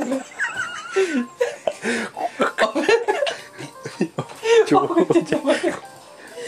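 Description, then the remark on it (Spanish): Someone sputters and chokes on swallowed saliva after breathing, talking and swallowing at the same time, with gasping, coughing bursts, while several people burst into loud, wheezing laughter throughout. “Oh, una, acción tan básica del cuerpo humano como es tragar saliva y lo hace mal.”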